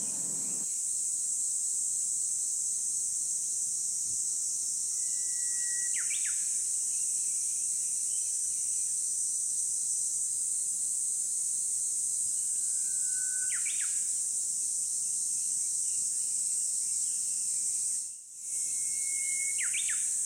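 A few short, thin bird chirps sound at widely spaced intervals, each brief and fairly soft, over a constant high-pitched insect drone that fills the background throughout.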